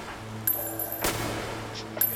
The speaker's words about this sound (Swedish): När männen går mot Sturekompaniets entré är det Shara som bär automatkabinen under sin rock. Setreus tar vapnet och skjuter några skott i marken.